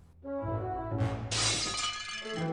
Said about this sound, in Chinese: 罐子掉到了地上。